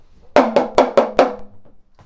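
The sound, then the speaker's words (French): Five quick knocks on a house door in an even, brisk rhythm, fairly loud, each with a short hollow ring, followed by a moment of near silence. “ils n'ont pas entendu le bruit de la porte. Il restait deux secondes et après ils se disent On retape”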